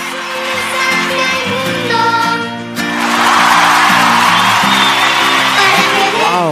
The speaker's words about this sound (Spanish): A ellos les voy a dar la bienvenida y el aplauso por ser nuestros niños talentos.